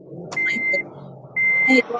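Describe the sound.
A vehicle's reversing alarm beeps twice, steady high-pitched tones about a second apart, fairly loud, over a low murmur of background voices and traffic.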